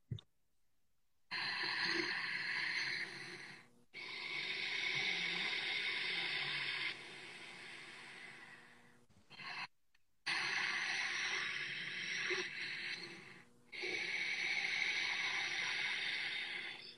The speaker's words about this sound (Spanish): porque es justo con la glotis aquí de la garganta. Entonces lo que pasa es que simula, eh, cuando tú haces esa respiración, el ruido simula como las olas del mar. Literalmente así se escucha, mira, lo voy a hacer. A ver si se escucha.